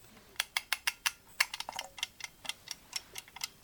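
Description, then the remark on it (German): A mechanical egg timer ticks steadily, a quick run of crisp, bright clicks at an even rhythm with no voices. “So, die Eieruhr läuft. Die Eieruhr tickt, sehr schön.”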